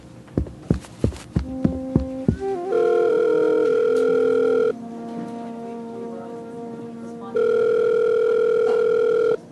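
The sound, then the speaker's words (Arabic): A few sharp clicks of handling a phone in a phone booth, then a loud, steady telephone dial tone drones for about two seconds, stops briefly, and resumes just as steadily. “ركضت مسرعا لكابينة الهاتف”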